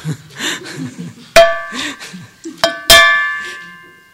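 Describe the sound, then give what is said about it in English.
A bowl is struck three times like a bell, each hit ringing with bright, sustained metallic tones; the final strike rings out longest, with someone talking between the hits. “Okay, to be a, and to take this bowl into a bell, it's dependent on this, it's dependent on this, and then it's dependent on someone like me who's going to oops, not much of a bell.”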